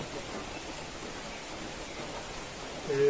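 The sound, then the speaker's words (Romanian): A steady, even hiss of rain falling outside on a day of rain, heard from a balcony, soft and continuous throughout, with a brief tonal murmur rising near the very end. “Pentru că afară plouă”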